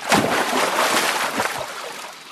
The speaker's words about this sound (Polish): Gdy zbliżył się ojciec ze swoim synkiem i weszli na kładkę. Anioł przewrócił kładkę, tak że ojciec z synkiem wpadli do wody.